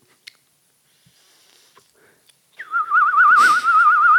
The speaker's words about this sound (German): Äh, Zauberflöte. Wo uns eine kleine Wax-Zauberflöte geschickt hat. Ja, spielen gerade mal drauf.